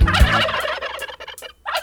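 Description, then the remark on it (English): A wild turkey gobbles loudly, a rapid, rattling burst of warbling calls lasting over a second, followed by a brief pause and the start of another gobble. “Wild turkey.”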